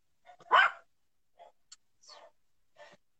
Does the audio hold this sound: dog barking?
yes